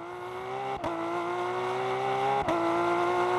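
A car engine screams at full throttle, a loud, steady high-revving drone broken twice by quick dips like gear changes, with no voices.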